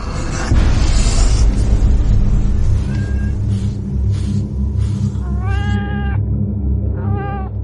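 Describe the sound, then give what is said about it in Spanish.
A cat meows twice in quick succession, the first long and drawn out, the second shorter, over a steady low rumbling drone after a brief noisy burst at the start. “Lo que sin duda contribuyó a aumentar mi odio fue descubrir, a la mañana siguiente de haberlo traído a casa, aquel gato, igual que Plutón, era tuerto.”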